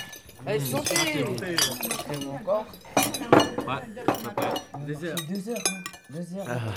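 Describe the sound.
Glasses and cutlery clink repeatedly at a meal, bright scattered chinks, mixed with steady murmuring voices and chatter throughout.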